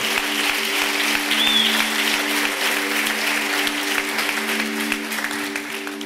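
A crowd applauds steadily for about six seconds, a dense, even wash of many hands clapping at a constant loudness, with a low steady hum running underneath.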